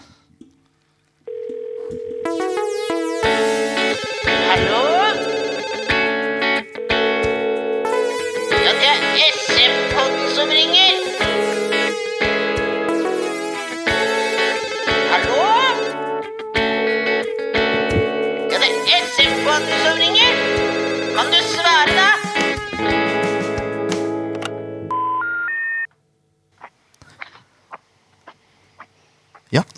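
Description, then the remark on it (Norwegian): A radio show jingle plays: bright, electronic synth-like melody with sustained, buzzy tones and shifting notes, loud and steady for about twenty-five seconds before cutting off abruptly. No one talks over it. “Uh, vi skal kjøre jingle, vi.”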